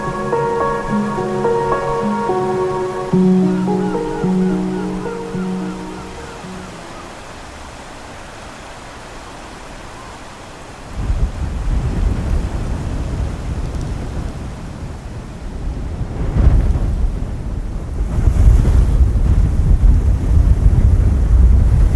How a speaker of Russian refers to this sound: Эх, море.